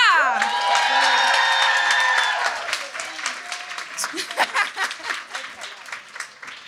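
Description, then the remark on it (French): An audience bursts into loud applause with cheers and whoops as the woman who introduced the host is welcomed on stage, the dense clapping thinning out after a few seconds into scattered individual claps. “Fait que, on va lui donner des applaudissements à la hauteur de ce qu'elle mérite,”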